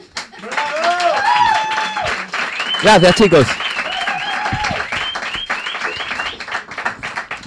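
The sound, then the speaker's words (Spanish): An audience on the programme La Hora Fenomenal applauds steadily with a dense, sustained patter of clapping, joined by cheers and whoops, while a man speaks over it briefly. “Un aplauso para.”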